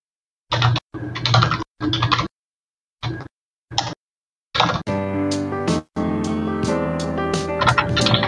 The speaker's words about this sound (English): you were the one typing.